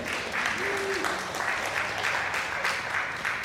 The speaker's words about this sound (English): How incredible is that? That's amazing. You can clap for that. That's God.